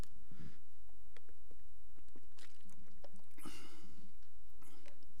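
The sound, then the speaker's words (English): Someone takes a drink of water: wet mouth clicks, soft gulps and swallows, and a faint clunk of a cup, with no talking. “Sorry, I need some water.”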